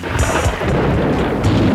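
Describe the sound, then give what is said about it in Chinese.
Low rumbling thunder rolls beneath a steady, dense hiss of falling rain, with the rumble swelling and fading briefly while the rain continues without a break; no one speaks. “哎，下雨了，快快快，我带你去躲起来。”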